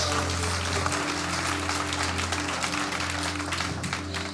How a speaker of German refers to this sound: Mal einen riesen Applaus geben. Hey!